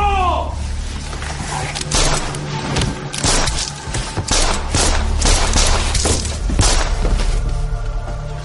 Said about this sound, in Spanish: se apersonó en su consultorio médico en la ciudad de Buenos Aires a primera hora de la mañana y casi sin mediar palabra lo asesinó de siete tiros a medio metro de distancia.